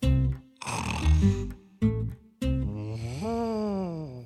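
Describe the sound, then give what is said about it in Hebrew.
A voice imitates a sleeping elephant's snoring: several loud, rough, rumbling snorts with short pauses, ending in a long, wavering, tonal snore that rises and falls in pitch. “פיל ישן בשלווה.”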